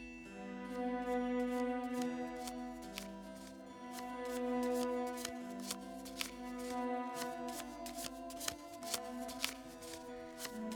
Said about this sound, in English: Now, as you shuffle the deck, Feel your energy flow into the cards.